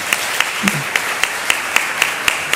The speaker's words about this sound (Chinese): 好，我们再一次用热烈的掌声，把一切的荣耀都归给神。